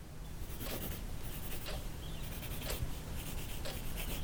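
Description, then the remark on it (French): A pen scratches steadily across a sheet of paper in quiet strokes, with brief scribbling bursts and a faint low hum in the background, as a person writes down what is important to them in their relationship. No one speaks. “Pour commencer, j'aimerais que chacun de vous écriviez sur une feuille ce qui est important pour vous dans votre relation.”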